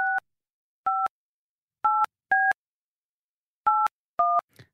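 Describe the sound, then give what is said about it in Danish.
Six touch-tone keypad beeps as a phone number is dialed on a landline telephone, each a short clear two-note tone at uneven intervals, ending with a faint click. No voices. “så ringer vi skulle lige op til Frederik. Yes på vores fastnettelefon”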